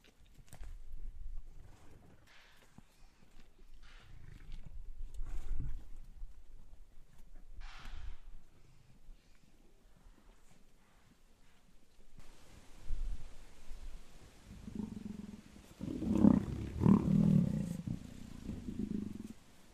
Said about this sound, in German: Ihr steht nur wenige Meter von zwei männlichen Löwen, die gerade ein männliches Impala reißen. Was ihr gerade hört, das sind die Knochen.